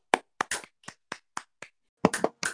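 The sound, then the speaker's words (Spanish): A brief round of applause celebrating the season two premiere of Tirando Zapatos, from just a few hands: about a dozen sharp, crisp claps in an uneven rhythm, with a short pause before a final quicker flurry. No one speaks. “Un aplauso.”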